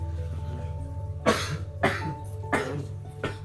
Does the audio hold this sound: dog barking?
no